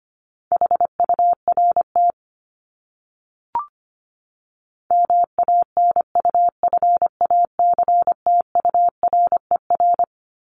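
Fast Morse code at 25 words per minute, a single steady mid-pitched tone keyed in quick dots and dashes. A short burst of code, a pause with a faint click, then a longer run of code. No voices.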